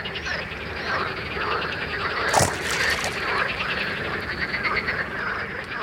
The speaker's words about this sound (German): Nur für eine kurze Zeit kommen hier jährlich Tausende von Fröschen zusammen, um mit ihren Gesängen Weibchen anzulocken.